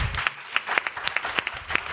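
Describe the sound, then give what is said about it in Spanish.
A TV game show audience applauds a panelist's score of four points in a steady, crackling patter of many hands clapping, with sharper individual claps popping out of the wash. The clapping holds at a moderate level, and no one speaks. “Pues Pablo tiene cuatro puntos. Aplauso.”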